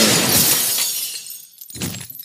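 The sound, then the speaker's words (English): A loud crash as the automatic glass and metal doors of the Happy Mart shatter when someone sprints through them, the bright burst fading into scattered tinkling debris, followed by a second smaller burst of breaking glass near the end. No voices. “Do Nothing Man leaps out of the car, sprinting through the doors of the Happy Mart, exploding glass and metal everywhere.”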